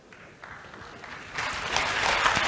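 A big round of audience applause for a participant, starting as scattered clapping and swelling sharply about halfway through into a dense, loud burst of many hands clapping together.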